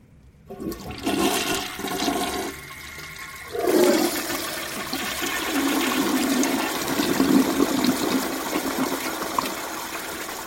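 A toilet in a restroom stall is flushed by pressing its button, with a sudden rush of water that surges, then settles into a steady, hissing gush and gurgle as the bowl refills. No one speaks.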